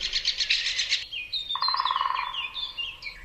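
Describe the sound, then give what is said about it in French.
A woodpecker's alarm call: a quick run of sharp, high repeated notes, then a lower harsh rattling chatter and scattered chirps, clear, with no voices. “Donc là, on l'entend tambouriner sur l'arbre et puis on entend son cri aussi euh, d'alerte.”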